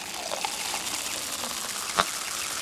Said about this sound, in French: Pas de la mousse carbonique pour éteindre les feux, mais de la mousse de bain. il est joli le petit bruit de la mousse de bain. On peut l'entendre encore